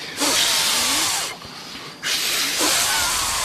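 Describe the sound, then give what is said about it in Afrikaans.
Someone blows hard on a small fire of paper, cardboard and damp wood to get it burning: two long, loud, breathy rushes of air, each over a second, separated by a brief pause. No one speaks. “Ons moet blaas. Laat ons blaas kas. Ja, blas. dat ons die spul aan die brand kry.”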